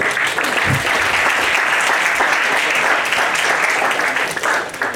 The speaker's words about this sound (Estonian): aga suure aplausiga võtan Valeria vastu